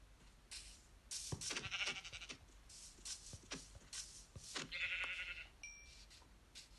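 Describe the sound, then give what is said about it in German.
Short bleats from a video game sheep, mixed with soft shuffling steps and rustling as the player finds another sheep. The sounds are moderately loud, with no talking. “Hier ist noch ein Schaf.”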